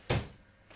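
An apartment door slams shut with a sudden heavy thud and a short booming decay, followed by a faint softer knock a moment later. Nobody speaks.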